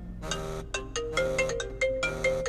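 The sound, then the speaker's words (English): A melodic phone ringtone plays clearly, a bright repeating sequence of tones with steady rhythm over a faint low hum, no talking. “Y'all gonna hear this shit ring?”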